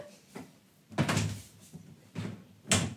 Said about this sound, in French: Je vais aller fermer la porte. Ça va être beaucoup mieux.